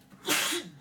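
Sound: sneeze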